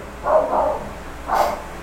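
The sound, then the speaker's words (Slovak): A dog barks three times, two quick barks followed by a third after a short pause, moderately loud against a quiet background hum. “pardon za psa.”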